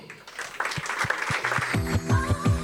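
An audience breaks into steady, dense applause that builds quickly and stays loud, with a low thumping beat and a tonal musical sound joining in partway through.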